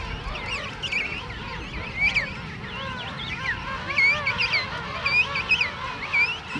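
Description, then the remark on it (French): A dense, continuous din of many penguins calling at once in a penguin colony, loud honking and braying cries overlapping, with louder calls rising above the crowd every second or so, as partners seek each other and chicks seek their parents. “7h du matin jusqu'à 8h euh, du soir, 9h du soir, c'est un perpétuel brouhaha, hein. une grande foire dans, euh, laquelle euh, les, partenaires doivent se retrouver, les poussins doivent retrouver leurs parents.”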